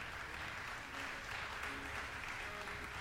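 Sustained audience applause after the performance of an aria by Purcell, a dense steady wash of many hands clapping at an even volume throughout, with no voices standing out.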